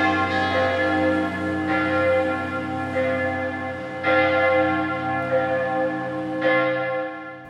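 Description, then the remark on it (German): Five church bells peal together in a rich, layered chord, fresh strikes landing every second or two over a sustained, humming wash of overlapping tones. No voices, just the continuous ringing. “dass wir, wenn wir gleichzeitig läuten, dass das einfach eine vollkommene Harmonie gibt.”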